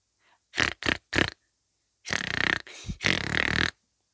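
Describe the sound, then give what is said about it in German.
Pig-like grunting from a snail, loud: three short snorting grunts in quick succession, a brief pause, then two longer, rougher grunts, with no talking. “grunzt die Schnecke etwa?”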